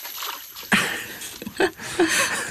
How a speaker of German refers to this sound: Okay, ich muss mal kurz, ich muss nur kurz meine, mein Wasser aus den Gummistiefeln machen.